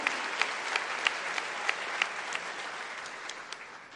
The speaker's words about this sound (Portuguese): Você crê nisso? Aplauda ele bem forte em nome de Jesus. Aleluia.